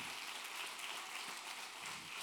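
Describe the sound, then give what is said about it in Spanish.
An audience breaks into steady, dense applause for the risen Christ, many hands clapping together in a continuous crackling wash that holds at an even level for a couple of seconds with no voices over it. “Ah, vamos a dar un aplauso al Cristo resucitado.”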